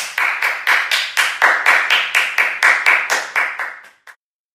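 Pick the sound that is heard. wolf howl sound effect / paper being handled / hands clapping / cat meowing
hands clapping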